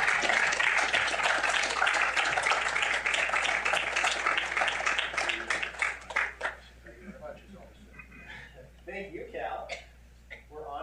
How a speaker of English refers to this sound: wild applause. Thank you.